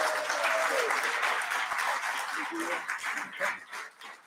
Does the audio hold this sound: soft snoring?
no